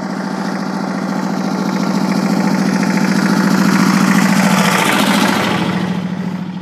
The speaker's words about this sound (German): So, und jetzt kommt hier gerade ein Traktor. Wollen wir mal gucken.